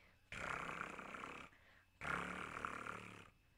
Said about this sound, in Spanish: La ovejita roncaba dulcemente.